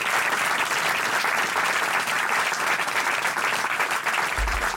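Steady, dense applause from an audience, a continuous wash of many hands clapping at even loudness throughout, with no voices rising above it.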